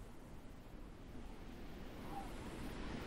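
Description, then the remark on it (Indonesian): Ocean surf rolls and churns continuously against coral rocks, a broad rushing wash of water with a low rumble underneath, fairly faint with some wind mixed in, building slightly toward the end. “ombak yang menabrak batu karang”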